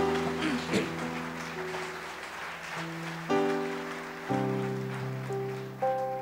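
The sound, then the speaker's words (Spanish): An audience applauds steadily, giving applause to the King to thank God, a dense patter of clapping running throughout, while sustained keyboard chords shift underneath every second or so. “Puedes decir amén, da un aplauso al rey, dile gracias Señor, gracias eterno Dios.”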